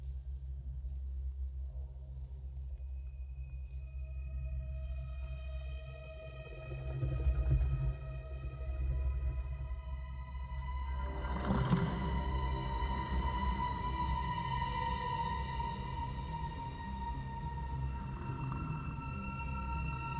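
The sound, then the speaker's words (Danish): A musical interlude of low, rumbling drones layered with sustained, eerie harmonic tones that swell and shift over about twenty seconds, with a brief surge midway and no speech. “Så smider jeg en, uh, en, en breaker på”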